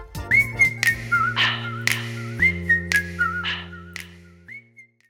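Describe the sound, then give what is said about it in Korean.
A pop song plays on the radio: a bright whistled melody over steady bass chords and regular drum hits, loud, with no voices. “그럼 주문 기다리면서 노래 한 곡 듣겠습니다.”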